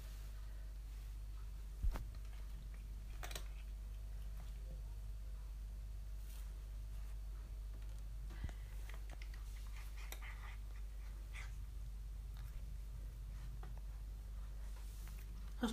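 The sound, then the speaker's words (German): Faint, irregular crunching as pets chew dry treats, with a few sharper clicks scattered over a steady low background hum and no talking. “So, jetzt bin ich aber leise, damit man das Knuspern hört.”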